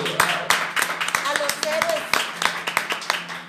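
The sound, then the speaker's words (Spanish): A short burst of applause for all the people who help: sharp, crisp claps from a few people at an uneven, fairly quick pace, with faint voices or a cheer murmuring underneath. “Claro, pues ahora sí que un aplauso ¿no? para todas esas personas que ayudan.”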